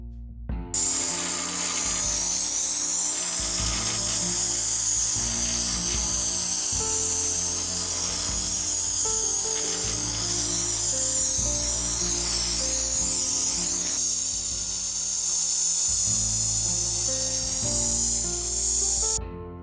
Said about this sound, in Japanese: これは玄関の扉の塀のところを高圧洗浄機で洗浄しているシャーっていう音ですねすごく綺麗に汚れが取れてとても気持ちいいです